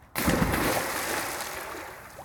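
Water splashing steadily at close range, a continuous sloshing and splattering that starts abruptly and carries on without talk, with a faint roomy echo like an indoor pool.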